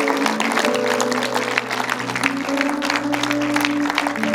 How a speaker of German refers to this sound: Hey, lass uns den mal einen Applaus geben.